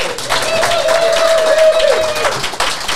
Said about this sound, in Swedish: Eh, jag, tyckte vi jag tänker vi skulle börja med och, och att alla gör, gör lite ljud från sig. Typ en applåd så vi hör att det finns lite publik här.